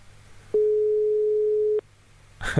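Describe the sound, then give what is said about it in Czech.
A single steady phone ringback tone from a call to a man that goes unanswered, a clear mid-pitched hum over faint background noise lasting just over a second, followed by silence and a brief voice sound at the very end. “Čekej, zkusím mu fakt za, zavolat.”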